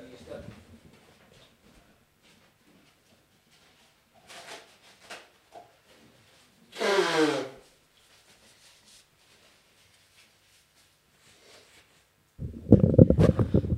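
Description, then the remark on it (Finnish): Paper being picked up and handled: scattered soft rustles and taps, then a loud sweeping swish of paper, quiet again, and a final burst of heavy crinkling and rustling. “Hetki, otan paperia.”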